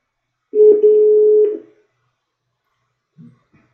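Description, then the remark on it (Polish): A phone call to footballer Kuba Łabojko, a Brescia player, rings out: one steady, mid-pitched ringback tone lasting about a second, followed by silence and a brief soft blip as the line connects. No one speaks. “Dzwonimy do Kuby Łabojki, aktualnie zawodnika Breszci.”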